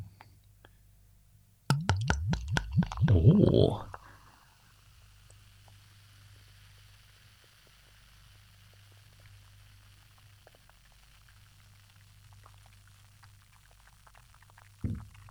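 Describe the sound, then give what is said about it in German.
Beer glugs into a glass for about two seconds, splashing and rising in pitch as it fills, then a soft, steady fizz of foam lingers quietly in the background. “Ich gieße mir mal ein.”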